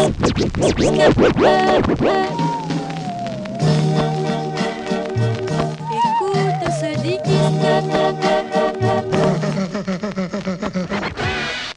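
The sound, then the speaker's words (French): A DJ scratches a vinyl record by hand on a turntable, varying the record's speed, in quick, rubbery back-and-forth bursts, loud, then a melodic beat with deep bass continues as more choppy scratches cut in and out. “Cette technique propre au DJ manipulant des vinyles avec la main, jouant sur la vitesse de défilement du disque et sur la création d'impact, des sortes de clics par l'action de la tête de lecture sur la platine.”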